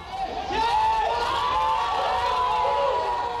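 Several people shout and yell at once in a loud, chaotic clamor, overlapping voices rising and falling in pitch over a steady crowd roar, as a police officer appears at an apartment building carrying a girl wounded by gunshots at the end of a hostage situation.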